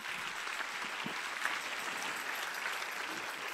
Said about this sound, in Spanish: Si usted va a aplaudir a su papá.